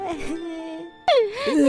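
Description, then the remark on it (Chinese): A little girl sitting on a log with her hands over her face, crying in high, wavering sobs: a short wail, a pause, then a louder wail that dips and rises in pitch. No words are spoken. “原来啊，在哭泣的是一个小女孩，小女孩坐在木头上面，双手捂住脸，看起来好难过的样子。”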